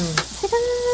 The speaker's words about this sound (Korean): 지글지글 음. 소리 들리시죠? 우리 요리는 먼저 소리로 먹는 것 같아요. 그리고 눈으로 먹고.